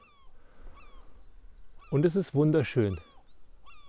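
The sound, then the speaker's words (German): Faint gull cries sound, a few scattered calls before and after a short stretch of a man speaking over quiet background ambience, recorded right at the water's edge on a calm day with no waves, under a blue sky with a few small clouds. “Heute ist das Wasser ruhig, man hört die Möwen”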